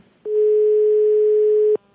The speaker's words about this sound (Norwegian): NRK prøver å ringe personen som selger ulovlige …-billetter.